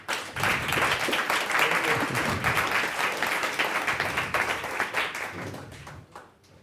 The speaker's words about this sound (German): Bitte nur einen Applaus für meinen heutigen Gast.